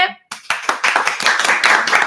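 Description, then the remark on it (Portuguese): A voice trails off, then fairly loud applause breaks out at the end of a live stream, applauding the guests: a few sharp claps quickly swelling into dense, steady clapping from several pairs of hands. “Palmas para as convidadas. E palmas para você.”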